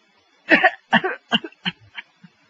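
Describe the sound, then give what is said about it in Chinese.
A man coughs in a rapid series of harsh, rasping bursts, about five or six, each shorter and weaker than the last, trailing off into faint hacks with no speech. “他这一咳嗽不要紧，拿手绢一擦，再看。”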